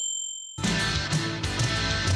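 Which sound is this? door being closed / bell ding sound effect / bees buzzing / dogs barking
bell ding sound effect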